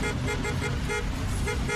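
A rude car horn sound effect, a motorist's reply to an insult outside Six Flags on the Picacho-Ajusco highway: harsh, loud honking that repeats in quick bursts for a couple of seconds, with a faint rumble of traffic underneath.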